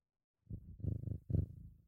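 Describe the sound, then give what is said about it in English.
A cat purrs into the microphone in low, rumbling bursts, three throaty pulses with brief pauses between breaths, steady and fairly soft with no talking. “Sorry, like the cat.”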